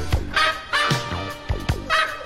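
A dog's barks and yelps are arranged into a sung melody, with bright tonal bursts rising and falling in a steady rhythm, fairly loud over a soft lounge-style musical backing.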